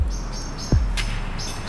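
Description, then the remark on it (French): Birds in a cemetery chirp in short, high, thin bursts that repeat a few times, with a dull low thump and a brief sharp click in between; nobody speaks. “Vous entendez les oiseaux”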